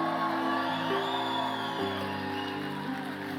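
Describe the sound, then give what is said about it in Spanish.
A standing audience erupts in loud, sustained shouts of glory to the Lord, many voices blending into a continuous roar of whoops and cries that holds steady for a few seconds. “Ponte de pie y dale un grito de gloria al Señor.”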